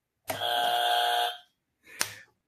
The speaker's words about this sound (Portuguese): Buzina para ele também.